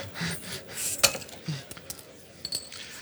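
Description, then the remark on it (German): Glass and metal clinks as a bottle of Deichlimo is worked open: a sharp bright click near the start, then scattered small clinks and scrapes, with a few faint background murmurs. “hat gerade die Flasche so ein bisschen geöffnet wie eine Cham”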